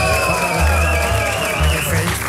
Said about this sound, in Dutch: Mag ik een applaus voor opa